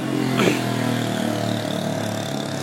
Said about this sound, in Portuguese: sobre motos que passam na rua fazendo muito barulho.